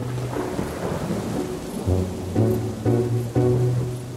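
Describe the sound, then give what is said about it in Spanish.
Steady rain falls over rolling thunder on a hot April day, a storm like a tropical summer one, with several deep rumbling peaks building one after another. No voices, just the storm fairly loud throughout. “Ese día, un raro día de abril, con una tormenta que parecía de verano tropical,”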